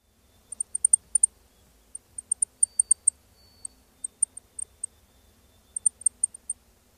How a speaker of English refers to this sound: Lincoln sparrow has a high pitched, insect like zeet.